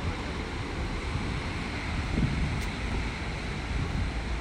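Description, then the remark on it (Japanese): Steady, roaring wind at a beach, growing quite strong, buffets the microphone with heavy low rumble, while a broad wash of surf noise runs continuously underneath, swelling slightly midway; no one speaks. “かなり風も強くなってきましたね”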